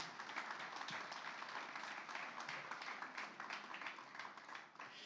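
A crowd breaks into sustained, dense applause for Jesus, many hands clapping together in a steady roar that fills the space for several seconds before easing slightly at the end.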